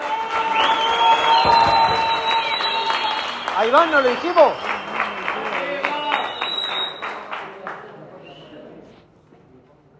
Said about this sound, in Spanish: Vamos, aplaudan, aplaudan.